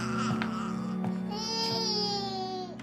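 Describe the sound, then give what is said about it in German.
A newborn baby cries in a steady wail that rises into a long, strained tone before breaking off, with a low constant hum underneath. “Der Säugling! Ich nehme ihn.”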